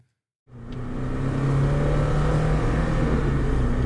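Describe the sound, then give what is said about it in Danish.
After a brief silence, a car engine roars in and climbs to a loud, sustained high-rev drone at 8,000 rpm, its buzzing tone holding steady with no talking. “Og det er 8.000 omdrejninger.”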